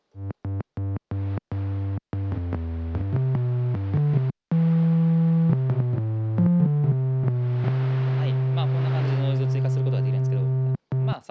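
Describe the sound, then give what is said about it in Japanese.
A buzzy analog synthesizer tone plays a run of short stabbed notes, then longer sustained pitches, with a hissy layer of noise swelling in over the held tone toward the end. “えー、っとちょっとこのままだと癖がない感じなので、えー、っとノイズも追加することができて”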